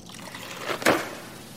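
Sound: water sloshing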